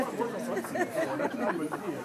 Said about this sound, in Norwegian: Det er lunsjtid på Litteraturhuset i Bergen, og en venninnegjeng har endelig funnet plass ved et av de populære bordene i kafeen.